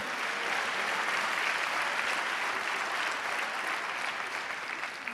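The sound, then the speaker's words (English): An audience applauds in a steady, dense wash of clapping that holds at an even, fairly loud level for several seconds with no voices standing out. “Can we clap loud and say amen?”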